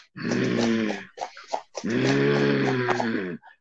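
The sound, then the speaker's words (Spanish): A voice imitates a dog-like growl, two long raspy, guttural snarls separated by a short pause, fairly loud with no speech around them. “como una especie de animal, sí, como un perro y empezaba mm", y empezaba a rasguñar la puerta.”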